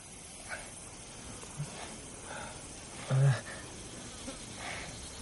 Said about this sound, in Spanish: Tiene varias moscas sobre la cara.